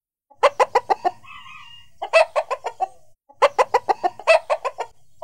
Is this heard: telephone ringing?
no